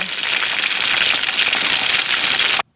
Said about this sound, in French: mon huile crépite, euh, est-ce que je peux ajouter les grains de maïs